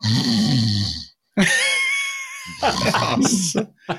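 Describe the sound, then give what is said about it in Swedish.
A person mimics an animal snoring with a few rough, throaty grunting breaths and a drawn-out nasal tone, loud, in short bursts separated by brief pauses. “Då har den somnat mitt i jakten för att det är någonting i stressen som gör att de”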